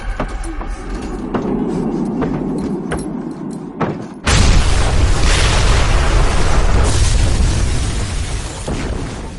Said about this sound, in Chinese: 大伙儿可能还记得《十月围城》。也是陈可辛监制的片子，他里边演那个那个老板的女儿叫方红，那不是为了保护孙中山，我爸爸做什么我做什么，跟杀手引爆炸弹同归于尽，有不少人在电影院里看的这个。